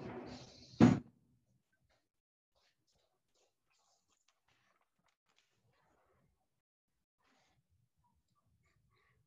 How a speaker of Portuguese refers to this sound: Deixa eu só fechar a porta lá, peraí, velho.